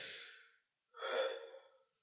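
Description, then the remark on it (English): Two deep, airy breaths close to the mic, a short one, a pause, then a longer drawn breath, as someone mimics the slow drag of smoking. No talking. “It's like the sensation of like smoking. That's what people are most addicted to. It was the breathing though, like that.”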